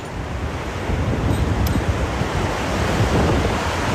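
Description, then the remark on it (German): Strong wind roars steadily through a treetop about 20 metres up, where climbers are tied to the swaying tree, a dense, rushing noise that swells in gusts and buffets the microphone, with no voices heard. “Wow, wenn du der Wind reinfährt. Ja, wackelt schon ganz schön geil.”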